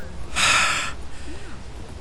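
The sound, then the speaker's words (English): A man calming himself draws a single deep, airy breath lasting about half a second, followed by near silence with faint background noise and no talking. “He calms himself, breathing deeply, and thinks for a moment.”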